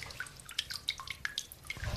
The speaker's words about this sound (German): so, ich bin jetzt im Versteck hier in irgendwie so, so einem kleinen Raum und hier läuft so ein ähm, Wasserdings irgendwie drunter und es tropft. Hört ihr das?